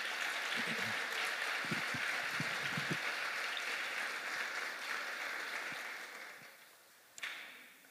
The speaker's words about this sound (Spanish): Y abriendo el aplauso a Jesús.